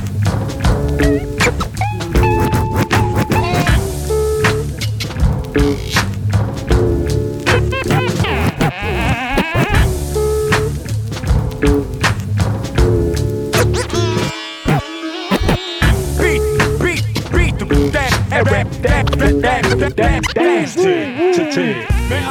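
A loud, dense hip-hop beat, the opening track of an album, plays throughout, with punchy drums, heavy bass and buzzy synth layers, briefly dropping out for a moment before crashing back in.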